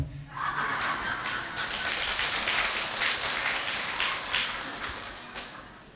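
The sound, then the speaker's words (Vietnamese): An audience bursts into applause, a dense wash of many hands clapping steadily for several seconds before thinning out slightly at the end. “dạng dở quá mà vỗ tay hoài người ta không thích rồi đó truyền lại là quý vị cứ tự điều chỉnh lại”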